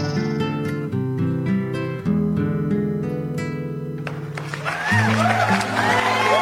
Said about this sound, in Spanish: El aplauso grande, grande